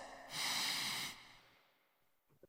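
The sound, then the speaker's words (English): A single loud sniff of a freshly opened drink for a sniff test, a breathy rushing inhale of about a second, followed by quiet and a couple of faint soft clicks at the end. “it's time for us to pop this boot open and take a little sniff test.”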